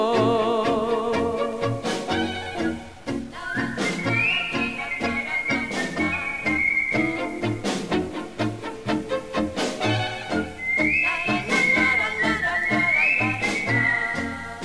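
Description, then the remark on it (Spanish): A high, clear whistled melody with sliding notes, the street whistling of a lone night wanderer walking away, comes in two phrases over dense, rhythmic instrumental music, carrying on steadily without any voices. “silbido callejero del noctámbulo solitario que se aleja.”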